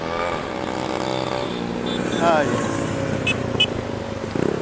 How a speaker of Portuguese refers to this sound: Deixa passar essas motos aí.